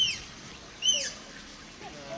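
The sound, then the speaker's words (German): A tapir's thin, high-pitched whistling squeals, made through its nose, arrive in two short bursts separated by a pause, each with quick rising and falling sweeps, fairly faint against a quiet background with no voices. “Ach, oh ja, es ist der Tapir.”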